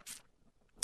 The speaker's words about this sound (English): Ah, that's the sound of saliva welling up at the mention of, of brisket.